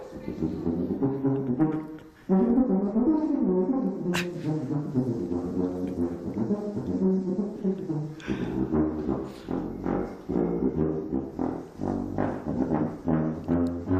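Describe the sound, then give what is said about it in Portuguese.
A recording from the only lusofone record in existence: the lusofone plays loud, sustained, buzzy tones with rich overtones, sliding between low and middle pitches in a continuous melodic line, with one brief pause early on and no voices. “O que é isto? Isto é um lusofone.”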